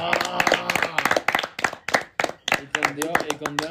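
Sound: people clapping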